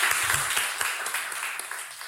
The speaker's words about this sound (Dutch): Applaus voor Lisa. Applaus voor Lisa.